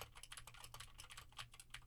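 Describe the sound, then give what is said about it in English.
Rapid, crisp clicky keystrokes from a mechanical keyboard with Gateron blue switches, continuous, with sharp tactile clicks in a fast irregular typing rhythm and no talking. “Now I am typing on a keyboard with Gateron blue switches to see how much of my voice versus how much of the keyboard it rejects.”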